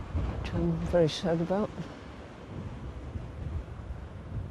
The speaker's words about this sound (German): Jetzt, wo die Herbststürme die Wellen aufpeitschen und das Meer immer wilder wütet, wird die Zeit knapp.